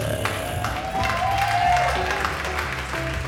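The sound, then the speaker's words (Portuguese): An audience applauds steadily for a few seconds as a performer is called onto the stage, a dense wash of clapping with faint cheers and whoops rising over it, holding an even, fairly loud level throughout. “E agora no palco, o vosso aplauso para Natasha.”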